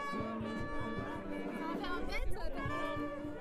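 A crowd of people chattering at once at a church exit, many overlapping voices forming a steady, lively babble that stays fairly loud throughout, with no single voice standing out.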